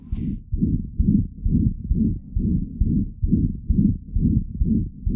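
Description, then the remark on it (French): A rough, whooshing heart murmur heard through a stethoscope, caused by a heart abnormality, about ten muffled, low beats in steady rhythm, each trailed by a harsh rumbling swish with no gaps of silence. “Il y a des bruits de cœur ou des souffles qui sont très rugueux.”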